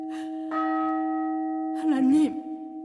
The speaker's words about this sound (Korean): 그 순간 저 멀리서 들려오는 교회 종소리